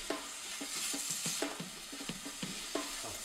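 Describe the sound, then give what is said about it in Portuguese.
Onions sizzle steadily in olive oil in a pot as they brown until soft, a dense crackling hiss with repeated soft scraping strokes as they're stirred, with no one talking. “Numa panela, levamos um pouco de azeite até cobrir o fundo. Juntamos a cebola e vamos deixá-la dourar até ficar macia.”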